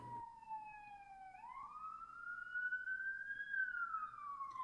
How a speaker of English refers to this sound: another siren?